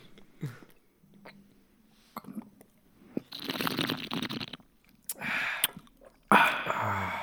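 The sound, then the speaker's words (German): Wet mouth noises of beer being gurgled and slurped in the mouth in front of a microphone: a long gurgling slurp followed by a couple of shorter bubbly slurps, loud and intimate, with quiet pauses between and no talking. “Das macht man ja bei Bier, ne? Ähm, im Mund so. Gurgeln und schlürfen, ja, ja.”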